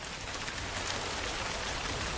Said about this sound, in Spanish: Ahora relájate con el sonido de esta lluvia en tu ventana.